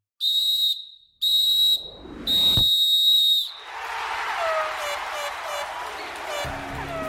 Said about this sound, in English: there's the final whistle.